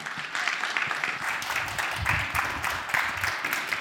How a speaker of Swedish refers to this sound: En stor applåd för Jerker Virdborg och Kerstin Wixe.